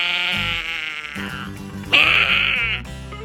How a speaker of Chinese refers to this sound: 哇，不愧是小偷猫老大，他的叫声才刚停下来，四面八方就来了非常非常多各式各样的猫，喵喵